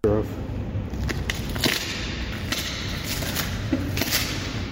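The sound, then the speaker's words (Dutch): Shoes peeling off a sticky blue cleanroom floor mat with a strongly glued surface, several crackling, tearing rips at uneven intervals like slow footsteps, fairly loud over a steady low background hum. “Maar dat is gewoon een ja, hele sterk gelijmde ondergrond waar je met je schoenen overheen”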